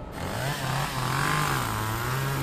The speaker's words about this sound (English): We are going to chop the wood now. We're going to use the chainsaw, which is kind of fun.